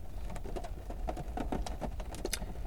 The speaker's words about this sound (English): Can you hear the rain? I might just record a bit of this and do one of them MSMR videos. Sat in the car while raining.